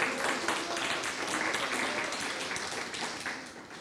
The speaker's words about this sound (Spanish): Usted tendría que dar un aplauso al Señor por eso.